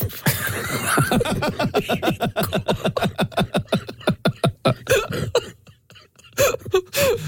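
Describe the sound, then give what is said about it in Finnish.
A dog makes a rapid, rhythmic hacking cough, a long run of short harsh bursts, slowing into a few scattered, irregular coughs before trailing off. “Tuo on mun koira.”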